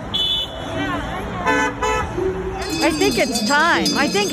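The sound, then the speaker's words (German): Several car horns honk in busy morning street traffic in Washington, D.C., in late March, as drivers respond to demonstrators holding signs asking them to honk for statehood; short repeated toots overlap one another amid engine noise and a murmur of voices. “Hupt für den Bundesstaat steht sinngemäß auf den Schildern, die sie Ende März in den morgendlichen Verkehr halten.”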